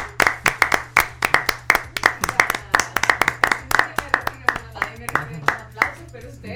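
Applause from a few pairs of hands welcoming a panelist as she enters: crisp, sharp claps in a quick, slightly uneven rhythm, holding steady for several seconds over a faint low hum.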